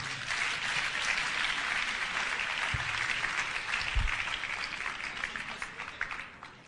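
A crowd gives a clap offering, breaking into sustained applause, a dense wash of many hands clapping at steady loudness for several seconds before easing slightly at the end, with no voices.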